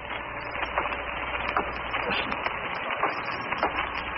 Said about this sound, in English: Yes, it's the same sound. We'll stand over here for a wall. It sounds again as if he were descending a flight of stairs. And yet there are no stairs.